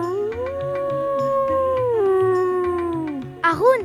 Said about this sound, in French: En se baladant à l'orée du bois, Mur entend de loin hurler Haroun, son frère loup.